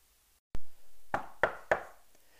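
Three firm, evenly spaced knocks on a door follow a single duller thump, with a brief resonant ring after each rap and no voices. The knock is the landlord, Mr. Butterbur, arriving at the door with candles.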